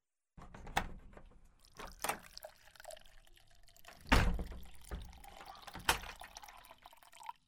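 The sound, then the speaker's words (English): Liquid pours and trickles into a glass at close range, its sound rising as it fills, with a few sharp clinks and knocks scattered throughout. No one speaks. “Uh, I'll lock the door while you pour us a drink, all right?”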